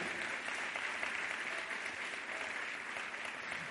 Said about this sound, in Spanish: Si alguien lo cree, levantes un aplauso al Señor. Aleluya. Aleluya.